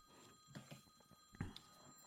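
A telephone rings with a steady, high electronic warble that runs through the whole moment, fairly quiet, with a few soft knocks and bumps underneath and no one talking.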